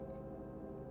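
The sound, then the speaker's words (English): A steady, dense modular synthesizer drone on preset one hums continuously, rich in low and mid harmonics with a faintly shifting texture, even in level with no voices; a delay and a reverb are mixed in through a 227E module. “What you're hearing right now is the drone on preset one.”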